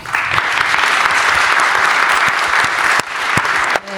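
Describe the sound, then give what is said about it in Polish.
Sustained applause from an audience for the hosts at a magazine launch event, a dense steady clatter of many hands clapping at full volume for several seconds, dipping briefly before tapering near the end. “To jeszcze brawa dla, brawa dla prowadzących.”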